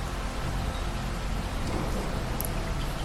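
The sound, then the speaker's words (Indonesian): Steady rain falls outside a bedroom window in a dense, continuous hiss with a low rumble underneath, fairly loud, with no voices and no breaks across the few seconds. “Padahal dengan suara hujan memberikan ketenangan.”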